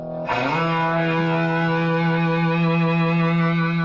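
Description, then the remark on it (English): A loud, overdriven electric guitar chord, played through a distortion pedal that overloads the signal, rings out with a gritty, fuzzy distortion, struck once and sustained steadily for several seconds with no voices. “Overdrive the sound and make it sound pretty rude.”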